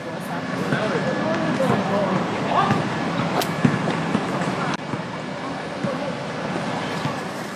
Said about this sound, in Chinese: 这个也是我在我在就是录这条巷子的声音的时候，其实有特别采集过的，就是那个篮球的，呃，就是篮球街拍到地上，然后又弹起来的那个声音，以及大家比如说一群朋友在打球的那种跑动，然后大家在笑啊，或者大家在就是在在聊天这样子。